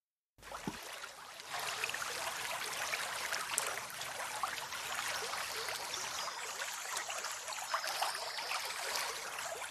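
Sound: rushing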